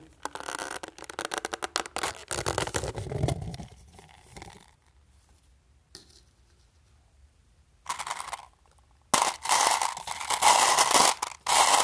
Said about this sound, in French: Là, je me joue avec les pinottes.